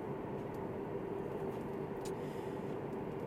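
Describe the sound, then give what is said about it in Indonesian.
Steady, constant road rumble from inside a moving car at highway speed on the Jagorawi road in Indonesia, a low droning hum with a faint engine tone and no talking. “di mobil gimana nih mobil mau kemana sih ini kita masih di Jagorawi nih”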